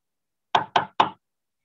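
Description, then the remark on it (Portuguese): Three sharp knocks on the wooden door of the neighbouring room in quick, even succession, fairly loud, with silence before and after and no voices. “Diante do quarto ao lado, comecei a bater na porta, meio que sem saber o que esperar, mas ninguém respondeu.”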